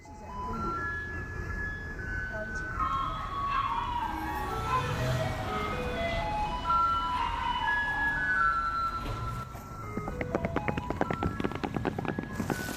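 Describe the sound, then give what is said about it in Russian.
A garbage truck in Taiwan plays its tinkling electronic melody over steady traffic noise, its bright tones rising and falling in a simple tune; near the end, a rapid series of sharp clicks or ticks joins in. “Ну что ж, давай тогда мы также напомним нашим слушателям о том, какой же у нас тут магический мусоровоз на Тайване.”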